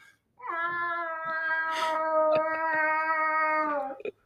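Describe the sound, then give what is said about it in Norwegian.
A person imitates a cat with one long, drawn-out meow, held at a steady pitch for several seconds before dropping off. It is loud, with no other talking. “Når man snakker om katt, så er det jo fristende å se hvem som er best av oss til å mjaue.”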